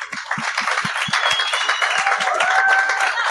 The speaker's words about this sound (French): Mesdames et messieurs, j'aimerais ça qu'on donne une bonne main d'applaudissement